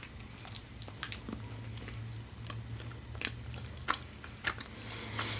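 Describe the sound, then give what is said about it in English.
Soft, moist chewing and biting into a gelatin-like sweet with a flowery herbal flavor, with a few sharp wet clicks and squishes over a steady low hum, no talking. “But do you want me to tell you anything about like what the flavors are, or you just want to bite I just into to it? Bite into it and see.”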